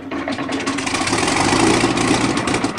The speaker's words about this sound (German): hebt Saint-Exupéry um Viertel vor neun mit seiner Lightning P38 zu einem Aufklärungsflug Richtung Grenoble ab